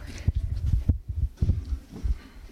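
A drum band rehearsing in Hasselt on a Tuesday evening, heard only as muffled, booming low thumps in a loose, uneven rhythm, with no voices.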